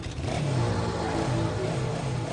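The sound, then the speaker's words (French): Many motorcycles rev and drone amid a constant wash of street traffic in a city in Taiwan, the pitch rising and dipping over a couple of seconds with no voices. “Il y a aussi énormément de motos.”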